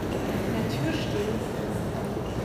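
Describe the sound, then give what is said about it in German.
Busy ambience at Montecatini Centro train station, with a steady wash of rumbling noise, scattered footsteps and murmuring voices in the background, fairly loud and continuous throughout. “So, wir sind jetzt am Bahnhof.”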